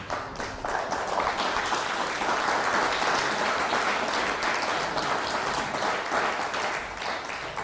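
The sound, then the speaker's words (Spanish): An audience applauds the Eternal (God) during a religious teaching, steadily for several seconds, a dense, even wash of many hands clapping that holds at a strong level throughout, with no voices standing out. “damos un aplauso al Eterno por eso.”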